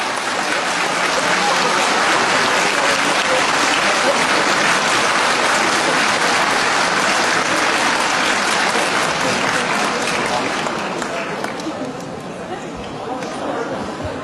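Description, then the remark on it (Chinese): An audience breaks into sustained applause welcoming Professor Wang to give a lecture, a dense, steady wash of many hands clapping that holds strong for about eleven seconds before thinning out and fading toward the end. “现在有请王教授为我们做精彩的演讲，有请，掌声欢迎。”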